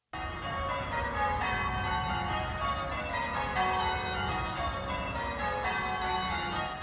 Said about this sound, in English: At 9 a.m., church bells ring out across New York City for a full half hour.